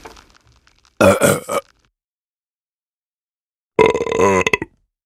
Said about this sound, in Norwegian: den kjente lyden av en rap. Gass som vil opp og ut. Raping er et fenomen de aller fleste kan kjenne seg igjen i, og kanskje spesielt de som drikker mye brus.